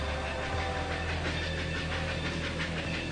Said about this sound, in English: It's a steam engine.